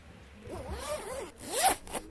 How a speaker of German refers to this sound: Täglich öffnen und schließen wir x-mal einen Reißverschluss. Das geht schnell und in aller Regel auch problem- und gedankenlos.